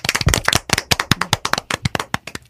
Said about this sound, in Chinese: 感谢神给我这样的机会，在这个难忘的日子，与大家和听众一起向神礼拜。我们以鼓掌，把一切颂赞、荣耀归给我们的神吧。